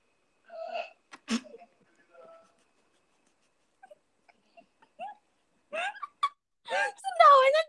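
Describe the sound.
A single loud, sharp sneeze bursts out after a brief breathy lead-in, followed by quiet and then some short vocal sounds and murmuring voices toward the end.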